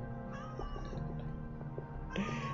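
A cat meows in a couple of drawn-out, wavering calls, the last rising a little louder near the end, with no one talking over it.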